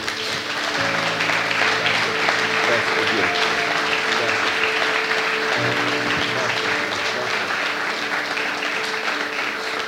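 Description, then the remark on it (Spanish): A church audience applauds for the Lord in a dense, steady wash of clapping that holds for about ten seconds, with sustained tonal notes and a few voices mixed in beneath. “Vamos a darle un fuerte aplauso a nuestro Señor.”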